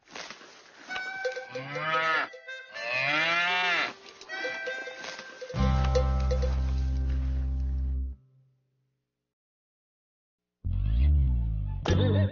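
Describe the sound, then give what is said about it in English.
A cow moos several times in a barn, with loud, drawn-out lowing calls separated by brief pauses and a short silence before a final moo. No one speaks. “A cow is in a barn.”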